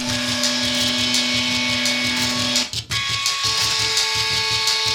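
Music played by a band on electric toothbrushes and bank card readers: buzzing, droning tones hold steady pitches over a pulsing low rhythm, with the notes shifting midway after a brief dropout. No one speaks.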